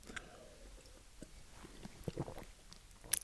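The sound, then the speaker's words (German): Someone quietly sips water, with a few soft wet slurps, small mouth clicks and a gulp spread over a few seconds. No one speaks. “Ah, so, Schlückchen Wasser.”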